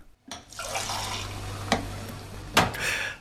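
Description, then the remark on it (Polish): Fresh draught beer being tapped: a steady, foamy rush of liquid pouring for about three seconds, broken by two short sharp clicks or clinks, with no voices. “Aj, to so niekotra szkuli dusza zwieseli, gdyż tunle zwuk słyszy. Czerstwe toczene piwo.”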